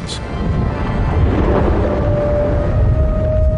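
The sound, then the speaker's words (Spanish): A deep, steady rumbling like a small earthquake, loud and continuous throughout, with low booming texture and a faint thin whine emerging halfway through. “Mucha gente describe los terremotos pequeños como el rumor de una hoguera.”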